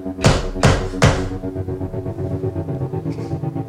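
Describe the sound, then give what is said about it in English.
Three loud, firm knocks on a dressing room door in quick, even succession, followed by a low steady hum with no other activity. “Knock again, but louder.”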